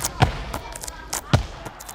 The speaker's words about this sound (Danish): Hvad man til gengæld ikke kan høre, er den klistrede, velkroagtige lyd af en håndbold, der rører gulvet. Havde man været helt tæt på, og havde alle tilskuerne været væk, havde det lyttet cirka sådan her.